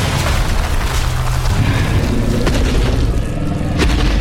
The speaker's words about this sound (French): Mais que se passe-t-il encore mais regardez ce qui vient d'éventrer les murs du studio.